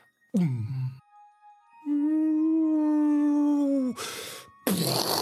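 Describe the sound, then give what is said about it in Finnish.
A voice imitates an explosive projectile flying across the sky and slamming into a glacier: a short falling wail, then a long steady whistling tone, ending in two loud, noisy bursts that mimic an explosion. Fairly loud, with no speech. “kun siihen käytännössä taivaan halki lentää räjähde.”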